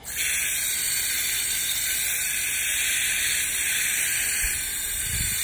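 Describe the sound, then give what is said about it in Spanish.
Water rushes steadily into a thin, lightweight garden hose that swells as the water is turned on, with a constant, bright hissing sound that holds even for several seconds, with a couple of soft low bumps near the end. “Son unas que están flaquitas y miren, cuando les vas abriendo el agua se empiezan a hinchar.”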